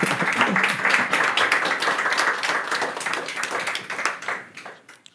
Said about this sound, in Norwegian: Gi han en varm applaus. Takk, takk.